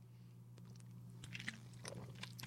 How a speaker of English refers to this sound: And man, this does make me want to take a swig. Ah. Of some delicious bubbles. Tonight's beverage, Lime Ginger Mule from Stop and Shop.